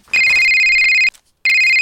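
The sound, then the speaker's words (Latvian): A telephone rings loudly with a steady, high electronic tone, one long burst of about a second, a brief pause, then a second burst starting. No one speaks. “Zirneklīt, skaties, kurā lapusē Agneses Vanagas pagalma enciklopēdijā kāds runā pa telefonu.”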